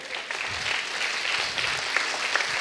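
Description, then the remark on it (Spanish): An audience at a church service applauds the Lord steadily, a dense wash of many hands clapping together at a fairly loud, even level throughout, with no voices standing out. “De la misma, déselo fuerte al Señor.”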